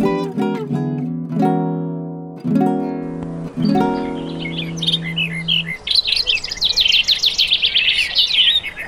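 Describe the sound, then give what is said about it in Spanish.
A few sustained, tone-like musical notes open, then a dense chorus of birds takes over, with rapid high twittering and chirping calls overlapping, bright, continuing steadily to the end. “Escuchemos primero cómo las aves lo anunciaron con sus voces.”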